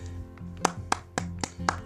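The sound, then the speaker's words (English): Five sharp, crisp claps land in a steady, evenly spaced rhythm over a low, sustained hum, sounding more like one pair of hands applauding than a crowd. “That's an applause.”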